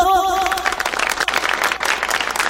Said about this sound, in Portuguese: Olha, eu fico muito feliz com o apoio de vocês, as palmas de vocês todos.